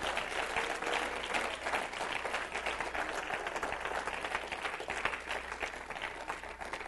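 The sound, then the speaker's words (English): An audience claps hands to the Lord in a dense, steady burst of applause that holds at a fairly even loudness for several seconds, with no clear rhythm to the many overlapping claps. “Clap your hands one more time into the Lord.”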